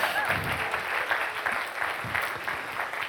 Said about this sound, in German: Herzlichen Applaus